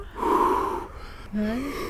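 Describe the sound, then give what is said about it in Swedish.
Two sharp, shuddering gasps from a person dipping their whole body up to the shoulders in cold water, the first longer and breathier, the second a quick voiced intake rising in pitch, with no speech. “Och nu är målet att vi ska vara kvar tills andningen är lugn.”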